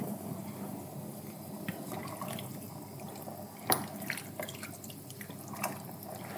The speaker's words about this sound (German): Oh, so Blubbergeräusch ist auch toll, ne? Ja. Dieses Zischen, wenn es brät, aber dieses Blubbern, wenn so eine Suppe vor sich hin kocht, ist auch, köchelt, ist auch. Aber am besten finde ich Brühe, wenn die so wallt.